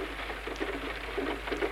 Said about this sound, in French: Il pleut plus doucement, les nuages sont encore hauts, la situation déjà pas brillante devient désespérée.